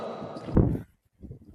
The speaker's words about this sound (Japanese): あ、あおどうもあいいですねこの響きまるでコンサートをしているようですね風の音がうるさくてすみません